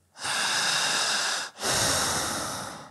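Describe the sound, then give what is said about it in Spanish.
Two long, loud, airy breaths demonstrating continuous breathing, one drawn steadily for over a second, a brief pause, then another continuing without a break, with no talking. “vamos a respirar en esa mecánica de dos o tres hasta quizá cuatro minutos.”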